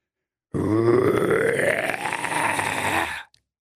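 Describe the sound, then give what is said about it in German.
A voice makes a loud, guttural, growling grunt-speech like a monster, one continuous gravelly utterance lasting almost three seconds with a slowly rising pitch, alone before cutting off. “Da tauchte das Monster sogleich aus den Fluten auf und sprach”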